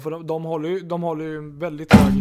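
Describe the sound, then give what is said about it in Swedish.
A mobile phone, dropped as a man tried to pick it up, lands with a single loud thud right at the end, breaking in just as his continuous talking stops. “min, eh, vänta, min telefon som jag råkade jag tänkte jag skulle vara lite snygg där och plocka upp min telefon utan att, titta”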